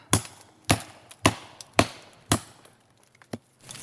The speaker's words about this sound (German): Du bist jetzt hier auf einem äh, halb abgebrochenen Baumstumpf äh, hochgeklettert und hast aus dem zersplitterten Stamm so ein äh, Stück Holz rausgeschlagen, das hoch aufgeragt hat